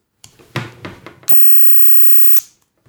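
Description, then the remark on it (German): A stick lighter clicks several times in quick, uneven succession, then catches with a steady, loud hiss of gas flame lasting about a second before cutting off. No one speaks. “Und da kauft man sich diese, diese Stabfeuerzeuge, die in aller Regel kaputt gehen.”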